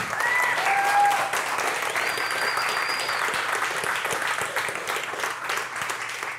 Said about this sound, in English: Oh. Thank you. That's a big round of applause.